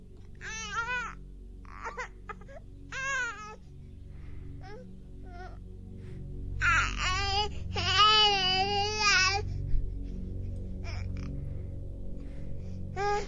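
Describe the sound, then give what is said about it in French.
A baby cries in several wavering, high-pitched bursts, with short pauses between them and a longer, more intense wail near the middle, over a low, steady rumbling background. “Le lendemain matin, euh, pardon, la journée passe et finalement, alors que je vais me coucher, les grattements reprennent encore et encore, puis ils s'intensifient et finissent par se transformer en cris de bébé.”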